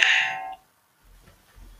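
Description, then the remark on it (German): A mobile phone rings with a bright electronic chime that sounds once, fairly loud, then cuts off after half a second, followed by quiet low rustling and handling noise. “Entschuldigung, mein Handy nicht.”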